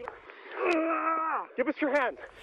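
A man screams in pain: one long, strained, wavering cry followed by several shorter, broken yelps, close and loud over faint background noise.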